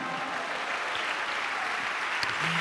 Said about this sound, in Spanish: ¿Cuánto dan un aplauso a Dios por eso, amado hermano?